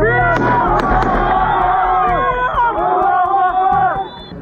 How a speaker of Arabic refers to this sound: في مسيرة انطلقت من أمام مخيم الأمعري بمدينة رام الله وعلى وقع الهتافات المنددة بجرائم الاحتلال وأصوات الأعيرة النارية أعلن المسلحون إعادة تفعيل المقاومة المسلحة في الضفة نصرة للقدس وغزة